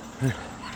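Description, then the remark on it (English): A neighbor's dog lets out one short, yelping bark, a brief sharp burst that fades quickly against a steady background hiss. “Neighbor's dog.”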